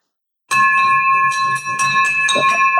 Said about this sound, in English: I have been waiting for that nonstop. I've been, I've been dreaming about that bell being rung for me.